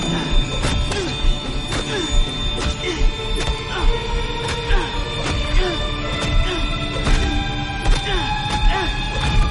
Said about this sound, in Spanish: Jack se lanza corriendo contra la criatura y en el suelo le da puñetazos en la cara.